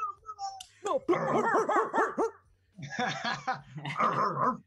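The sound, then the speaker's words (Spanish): A dog barks in rapid, high-pitched yapping bursts, a quick run of barks, a short pause, then another excited flurry. “Estamos bien con el ladrido, ¿no?”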